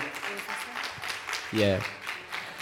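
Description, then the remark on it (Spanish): Scattered applause from a small group for the speaker's eldest son as he is introduced, a few seconds of quick, uneven hand claps at moderate loudness, with a brief voiced call or cheer rising over the clapping midway. “Dale un aplauso, por favor, al hijo mío.”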